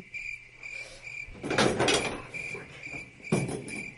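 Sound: cricket chirping sound effect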